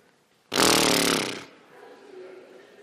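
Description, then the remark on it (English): A loud, raspy, buzzing fart sound that holds for about a second, then cuts off, leaving only faint background noise. “And when we're invited to a table full of people that we would consider beneath us, these things start to come out of us. And it kind of sounds like this.”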